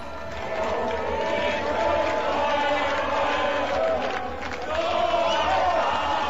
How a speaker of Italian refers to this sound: Libertà, libertà stanno scandendo.